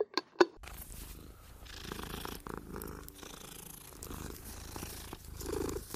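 A cat purrs steadily, a continuous low rumbling that runs for several seconds after a few brief clicks at the very start, with no one talking.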